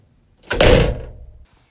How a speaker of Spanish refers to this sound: Jennifer Jones cerró de un golpe la puerta del jardín.